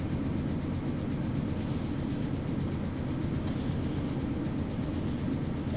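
A Nagoya Railroad (Meitetsu) local train running from Agui to Utsumi rolls along the rails with a steady, loud low rumble and a faint rhythmic clatter of wheels running underneath, continuing evenly throughout with no voices.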